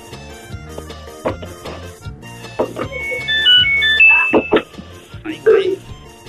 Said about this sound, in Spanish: ¿Esa fue la secadora? Es la secadora de ropa. De ropa.